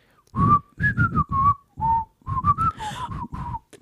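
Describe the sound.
Someone whistles a washing machine's end-of-cycle jingle: a quick tune of about a dozen short, clear notes in a few phrases, fairly loud, with no talking over it.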